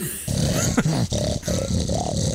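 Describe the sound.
A person makes a low, rumbling growl with their voice, imitating a beast, sustained over a couple of seconds with a few rough breaks and swells, fairly loud.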